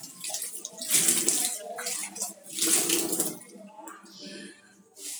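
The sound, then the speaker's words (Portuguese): Dishes being washed under a running tap: a steady hiss of water swells into two loud, splashing surges as things are rinsed, then eases off, with a soft gurgle at the end. “Lavando essa louça aqui”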